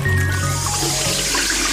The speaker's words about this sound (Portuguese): Mas por que essa torneira aberta quando está fazendo essa barba?